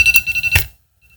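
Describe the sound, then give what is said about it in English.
A phone alarm set for three o'clock as a reminder to check an auction sounds briefly: a bright, steady electronic tone with quick rhythmic pulses, fairly loud, cutting off after under a second into near silence. “There's my three o'clock alarm to check the uh, check the auction.”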